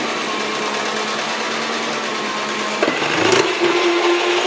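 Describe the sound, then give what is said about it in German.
A kitchen machine with an RG28 grater attachment whirs steadily and loudly; partway through, the motor's pitch shifts and roughens as potatoes are pushed through and grated, one person holding the attachment while another pushes. No one speaks. “Dieser Aufsatz macht halt so Rohkost, aber auch Reib der Kartoffeln. Und man schaltet das Ding jetzt ein, genau das macht dieses wunderschöne Geräusch.”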